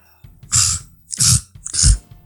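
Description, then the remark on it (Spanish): Three harsh coughing and gagging bursts after downing a drink in one go, each rough and throaty, coming in quick succession with brief pauses between them and no talking. “Parezco pinche gato sacando bola de pelos.”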